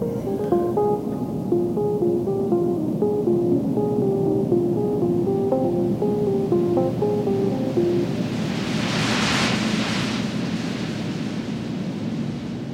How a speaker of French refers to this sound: par l'oreiller et le bruit des vagues.